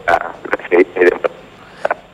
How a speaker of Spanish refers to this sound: en este momento estás saliendo con una gran, gran eh, interferencia, todo cortado. Tal vez estás en un celular.